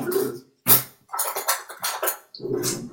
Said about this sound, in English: And this, I'll show you how to do it. I'm going to grab a straw.